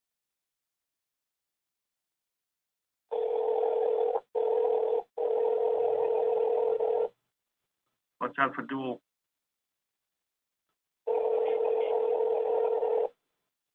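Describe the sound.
An electronic phone ring over a call line, sounding in steady tonal bursts with brief gaps, then a short spoken phrase before one more long ring comes through.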